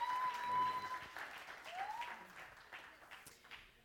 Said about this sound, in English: So, come on, one more time. Will you clap your hands and will you welcome my wife,